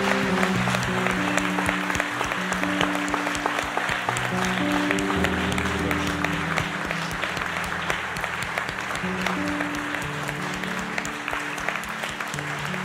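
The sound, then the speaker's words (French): An audience applauds newly baptized people steadily for the whole stretch, a dense wash of clapping hands at a loud, even level, with sustained low musical tones humming underneath. “Est-ce qu'on peut encore les applaudir pour de vrai Est-ce qu'on peut encore les applaudir”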